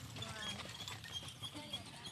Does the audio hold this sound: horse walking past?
yes